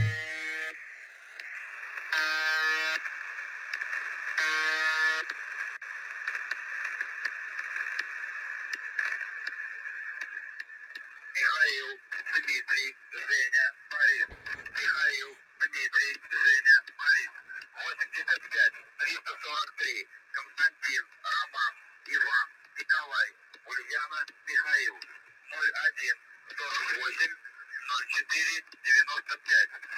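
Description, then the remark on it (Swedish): A mysterious radio station broadcast, still on the air today and of unknown origin, with no one, not even Russia, claiming it: a steady droning tone broken by three harsh buzzing bursts, then a tinny, narrow-band voice talking in choppy phrases over the hiss. “man kan faktiskt hitta den här radiostationen om man vill på radio.”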